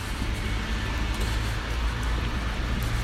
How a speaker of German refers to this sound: Autos von links nach rechts, rechts nach links. Die Räder zischen über den nassen Asphalt.